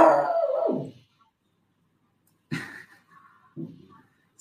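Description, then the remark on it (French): A dog lets out a loud, drawn-out howl that slides downward and fades, followed after a pause by a couple of shorter whining yelps. “C'est ton jaguar ou quoi C'est ah, c'est mon chien.”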